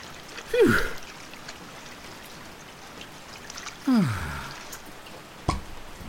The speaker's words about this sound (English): It was then that Piglet's bottle floated by and thinking it was honey, Pooh plunged into the water, seized it, and struggled back to his branch again.